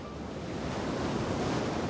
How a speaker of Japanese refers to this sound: ここイギリスエセックス州はただいま14時沖合にある48機の風車が北海の強い風を受け今まさに発電しています